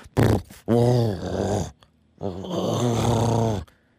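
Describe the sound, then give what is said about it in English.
A person imitates a cat's purr with a low, rumbling, throaty voice: one short burst, then two longer drawn-out purrs separated by brief pauses, fairly loud. “Um, let me do a purr.”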